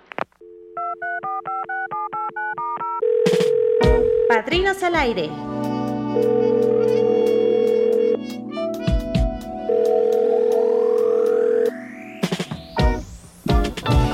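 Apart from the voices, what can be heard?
telephone dialing and ringing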